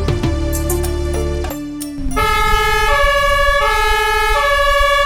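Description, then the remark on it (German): The siren of a new red fire department equipment vehicle with blue lights, belonging to the compulsory fire brigade of Burg: a low engine rumble and horn blast, then a loud, steady two-tone wail that alternates in a regular rhythm. “Genauso klingt er. Der neue. Ein roter Alleskönner mit Blaulicht.”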